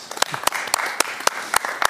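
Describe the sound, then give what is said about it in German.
A crowd applauds steadily after a donation to a children's initiative is announced, a dense wash of clapping with a few sharp, louder claps standing out at a regular beat, at moderate volume. “Da dürft ihr ruhig mal klatschen hier.”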